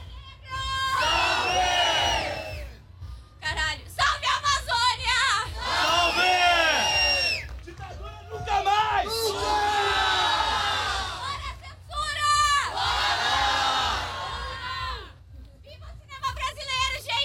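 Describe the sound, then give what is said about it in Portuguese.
A large crowd of artists from several countries, including Argentina, Venezuela, Colombia, Bolivia, Chile and Brazil, chants loudly in unison in protest, shouting rhythmic phrases in repeated bursts of a second or two separated by short pauses, the many voices forceful throughout. “temos artistas de vários países, artistas bolivianos, artistas chilenos, uh, nomes famosos da cultura brasileira, uh, alguns deles jurados também se manifestando aqui.”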